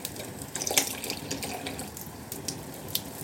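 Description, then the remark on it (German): Beer with cherry in it is poured steadily into a glass, a continuous splashing gurgle with small fizzy bursts, running alone for a few seconds without any talking, as tiny bubbles rise into a creamy foam. “Das sind so ganz kleine Blubberbläschen, die dann da so hochsteigen und dann geben die dann so einen cremigen Schaum.”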